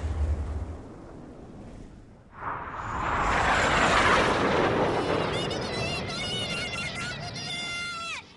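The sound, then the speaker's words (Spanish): A loud, broad roar swells in after a quieter stretch and holds steady, like United States military aircraft passing overhead, with high whining engine tones sliding near the end. “China se moviliza de inmediato para denunciar al tío Sam, el símbolo de los Estados Unidos, y a sus aviones asesinos.”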